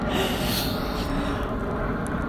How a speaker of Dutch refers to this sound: oh, gaat even een vliegtuig voorbij hoor. Lekker lawaaierig.